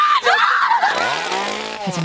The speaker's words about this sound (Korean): 귀신 배우들의 훌륭한 연기 탓일까요? 방문객들은 여기서도 저기서도 비명을 지르며 도망을 다니는데요.